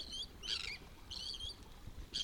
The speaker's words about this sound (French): j'ai envie de leur laisser la parole aux oiseaux.